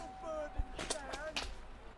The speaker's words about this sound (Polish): ewidentnie słychać w nim uderzenia pejczy, jakichś batów o ciała. I kiedy spojrzycie, to widzicie, że pomiędzy drzewami faktycznie maszeruje procesja flagelantów, tylko że z daleko już widzicie, że ci flagelanci na pewno nie żyją.